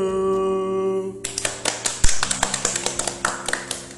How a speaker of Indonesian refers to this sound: Berani ya tepuk tangan manual.